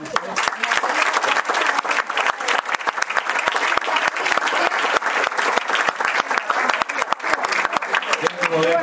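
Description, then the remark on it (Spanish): A large audience applauds steadily for several seconds, a dense, continuous patter of many hands clapping at once, loud, with no pauses throughout. “Para todas, un gran aplauso.”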